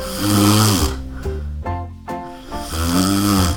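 Loud, rough snoring: a long rasping snore, a few shorter rumbling snorts in quick succession, then another drawn-out snore, with no talking.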